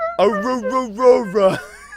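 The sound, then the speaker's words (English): A person mimics a dog's howl with a drawn-out, wavering vocal cry that rises and dips in pitch, fairly loud, lasting about a second and a half before fading. “he sounds like a dog every time he says it.”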